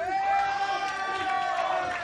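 An audience breaks into applause mixed with loud, sustained cheering and whooping voices, holding steady for about two seconds without any single speaker.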